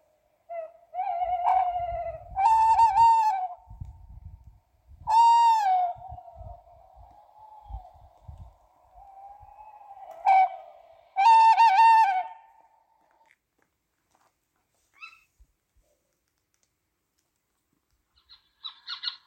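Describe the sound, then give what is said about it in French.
Tawny owls call repeatedly at night in marshland, mixing drawn-out hoots with sharper, screechy cries in several loud bursts separated by quiet stretches, with faint low rumbling early on and no talking. “Ce soir-là, nous avons pu entendre des chouettes hulottes à plusieurs lieux différents dans les marais, dans un château fort.”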